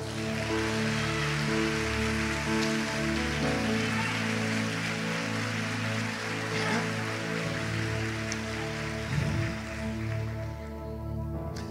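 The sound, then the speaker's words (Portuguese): An audience applauds in a dense, steady wash of clapping that lasts the whole stretch, with sustained musical tones holding underneath and no voices. “Dê uma salva de palmas, Senhor.”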